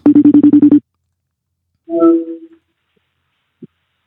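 A telephone ringing tone on an outgoing call to an interviewee during a live broadcast: a rapid burst of buzzy pulses, a pause, then a short wavering tone, followed by silence and a faint click.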